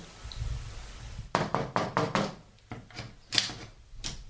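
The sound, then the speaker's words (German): After a quiet moment, a stuck door that someone cannot get open is rattled and knocked: a quick, uneven burst of sharp wooden clatters, then a few slower, separate thumps, with no voices. “Ich komme die Tür nicht auf.”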